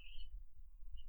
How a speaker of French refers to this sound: Et désolé. C'est pas grave. C'est mon téléphone.